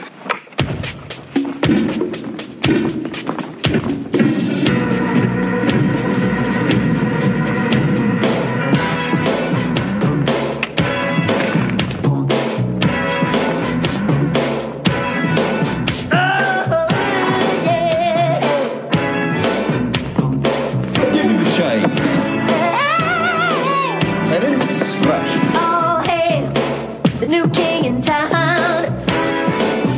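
An upbeat pop funk song plays steadily at full volume in a film scene where the Joker bursts through museum doors to desecrate art, with punchy rhythmic drums, bright layered instruments and a sung melody weaving through the middle.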